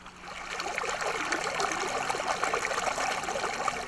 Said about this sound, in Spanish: Las aguas negras salen a borbotones de una alcantarilla, cuya tapa está deteriorada. Al lado está otro sumidero. Ambos están en un camino de terracería. Se trata de la calle Profesora Guadalupe Rojo Viuda de Alvarado en la colonia 6 de enero.